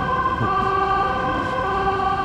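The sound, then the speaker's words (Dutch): An emergency vehicle siren wails steadily in the street by the Stopera, its strong tone fairly loud and continuous over a low rumble of road traffic, with no one speaking. “waar jij maar komt, eh, gaat de sirene af.”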